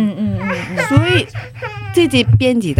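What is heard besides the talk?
baby crying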